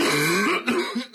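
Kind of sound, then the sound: human body sound, hacking cough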